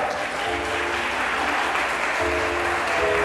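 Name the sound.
audience applause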